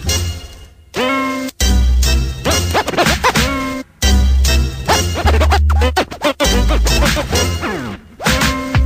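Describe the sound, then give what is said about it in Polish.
A loud hip-hop remix with a thumping bass beat and bursts of turntable scratching sweeping over the music, with brief cuts and stops between sections. “… zrobił remix”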